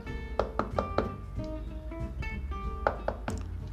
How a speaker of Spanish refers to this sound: Y bueno, pues ahora, este, vamos a tocar esa puerta, vamos a tocarla.